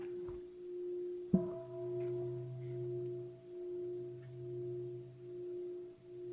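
A single bell is struck once and left to ring, its steady, pure tone sustaining with a slow wavering pulse as it gradually fades, heard alone in quiet surroundings.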